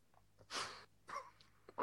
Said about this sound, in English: I can hear you breathing out as well. You have to. You have to hear that hard because okay. that's your retro nasal kicking in. So as it as you swallow, it's passing your nasal cavity.